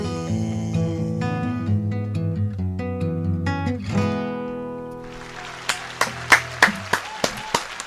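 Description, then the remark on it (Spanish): Live applause rises as a held musical chord fades, a dense wash of clapping punctuated by several sharp, loud individual claps near the end. “También los aplausos en vivo, no solo el apoyo aplausístico de”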